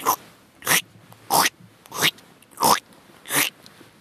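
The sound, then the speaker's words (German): A voice imitates squelching footsteps of walking through boggy ground in Scotland, where the path was a stream: six wet, smacking bursts in a steady walking rhythm, about two every three seconds, each short and fairly loud, with no talking. “Und demzufolge machte es dieses äh, typische Geräusch, wenn man in Schottland durch boggy Gelände läuft, dieses”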